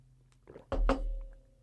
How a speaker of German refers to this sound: Jetzt muss ich mal einen Schluck Wasser drehen kriegen hier.